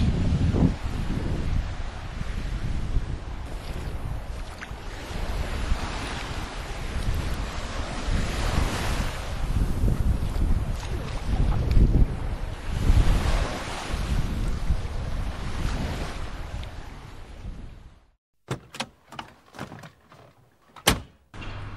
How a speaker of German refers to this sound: Aber jetzt erst noch mal ein bisschen Strand.